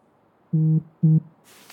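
A phone's call alert sounds as two short, buzzy electronic tones in quick succession, fairly loud, followed by a brief soft hiss. No one speaks.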